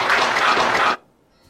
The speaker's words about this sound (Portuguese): Muito bem, está aí, né? Bastante aplauso também e o pronunciamento muito forte do, do, do prefeito Hilário que fechou né, ali aquele momento de muita emoção.